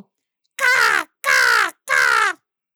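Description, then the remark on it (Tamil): A human voice imitates a crow, giving three loud, harsh caws in a steady rhythm, each drawn out for about half a second with short pauses between. “முறுக்க கடிக்கும்போது ஒரு சின்ன துண்டு தரையில விழ ஒரு காக்கா எங்க இருந்தோ”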